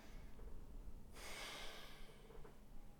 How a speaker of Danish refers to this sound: Og så bare tage en øh, god, dyb vejrtrækning helt ned i maven.